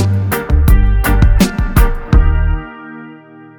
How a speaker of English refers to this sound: Okay, well, we heard two newer reggae tracks.